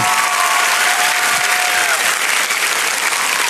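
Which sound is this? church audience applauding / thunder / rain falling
church audience applauding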